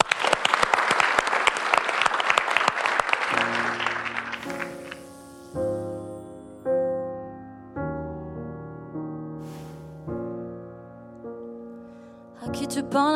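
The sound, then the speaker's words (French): A crowd applauds loudly for the live music act on the show Cracra Club, with dense, steady clapping for about four seconds, then the clapping fades out as soft keyboard music with sustained chords begins. “Ce serait pas la révélation pop de la décennie Applaudissez bien fort”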